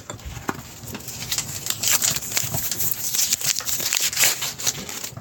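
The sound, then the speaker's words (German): Paper rustling and crinkling as a note is pulled out, a run of dry, irregular crackles and soft scrapes lasting several seconds, with no voices. “Ein Zettel könnte ich mal rauslücken, ne?”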